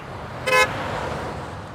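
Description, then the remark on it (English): A stretch Ford Bronco speeds erratically through dense, busy traffic, weaving, changing lanes often and accelerating quickly into gaps, amid a steady roar of road noise; a single short horn honk blares partway through. “As the card passes, takes the camera with it, and we see it weaving through the busy traffic. It is driving erratically as if in a big hurry, changing lanes often and accelerating quickly as soon as it finds a gap in the traffic.”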